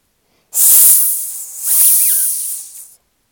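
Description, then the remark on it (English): A loud snake hiss in two long breathy bursts, sharp and airy, lasting a couple of seconds with a brief dip between them, and no one speaking. “Even its tail was an evil looking snake”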